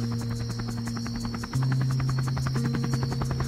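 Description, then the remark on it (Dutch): A helicopter flies over, droning steadily with a fast, rhythmic rotor chop and a low engine hum, fairly loud throughout, with no voices. “En tegelijkertijd een helikopter kwam over.”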